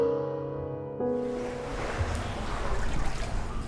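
A steady tonal hum gives way to a broad, continuous wash of water, waves lapping and sloshing into a seaside Japanese boathouse (funaya) where a boat is moored, with a gentle, irregular surge and no voices.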